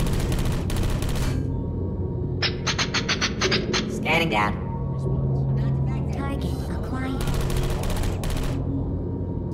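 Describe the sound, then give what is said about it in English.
Rapid bursts of video game turret machine gun fire rattle in short, loud volleys, while a synthetic voice speaks over the chaotic, busy background. “Hey, Squeaky Boys, give me some of your bullets.”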